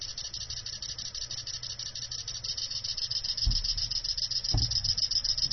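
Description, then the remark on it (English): A liquid level indicator called the cricket chirps steadily in a rapid, high, cricket-like trill while liquid is poured in beneath it, with a low rushing sound and two brief thuds near the end. “Okay, it's uh, chirruping at me. Hence why it's called the cricket. It sounds like a cricket.”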